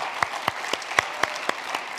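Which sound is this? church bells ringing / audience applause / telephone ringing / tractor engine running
audience applause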